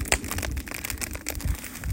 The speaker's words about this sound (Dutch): We gaan nu gewoon 5 minuten naar kampvuur luisteren.